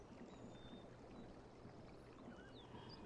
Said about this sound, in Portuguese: O mar, a areia, os pássaros, a praia. Por isso, fechem seus olhos e imaginem que estamos caminhando pelas areias da praia.